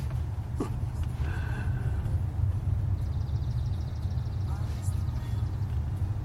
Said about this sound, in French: Alors on s'engage tranquillement euh, la bretelle pour prendre la 30. On entend les oiseaux.